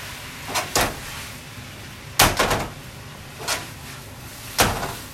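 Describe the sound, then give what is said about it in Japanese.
A frying pan of noodles with vegetables, sausages and cooking sake is tossed on the stove, making several sharp clattering bursts at irregular intervals over a low steady hiss, with no talking. “結構ですね鍋を煽るのは好きなんですよねあの昔タモリさんがあの芸能人のタモリがですねなんかの番組であのフライパンを煽る時にはなんか手前に引くんだっていうことを言っててですね”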